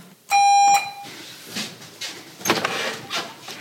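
A visitor rings the doorbell at someone's home once: a loud, steady electronic tone lasting about half a second, then a short fading tail, followed by soft rustling and shuffling noises.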